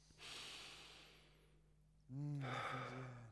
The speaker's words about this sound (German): Wussten Sie, dass man eigentlich nur sechsmal pro Minute atmen müsste? Sechs tiefe Atemzüge.